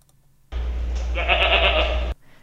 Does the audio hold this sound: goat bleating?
yes